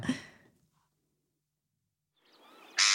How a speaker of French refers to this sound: La mouette. Bonne réponse.